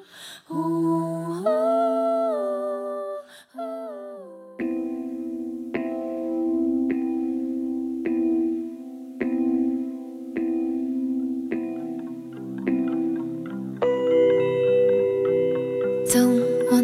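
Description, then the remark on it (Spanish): A slow, melancholy English-language heartbreak song plays on its own, with sustained, reverb-heavy tones over a steady pulsing beat that grows fuller and brighter toward the end. “que es una canción de desamor, la única en inglés.”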